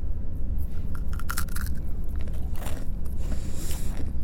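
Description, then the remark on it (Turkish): Crunchy bites into a candy bar, a few crisp snaps followed by brief chewing, heard alone over a low, steady background rumble with no talking. “İlk ısırığı aldığı an Ronald ne yaptığını fark etti.”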